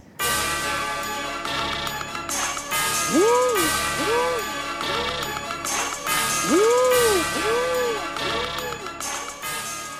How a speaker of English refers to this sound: let's listen to a mid 2000s trap song that has none of this.